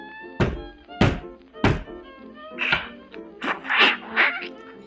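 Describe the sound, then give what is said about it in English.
Heavy, evenly spaced thumping footsteps climb a marble staircase, three loud thuds followed by a cluster of softer, scuffling knocks, with no talking. “As if something was coming up the marble staircase, and soon afterwards there was a gentle knock at the door,”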